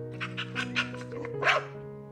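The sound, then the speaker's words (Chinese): A dog barks in a quick run of about five short, yappy barks, the last one louder and sharper, over a steady tonal hum like soft background music. “花了一年的时间，竟然只学会狗叫。”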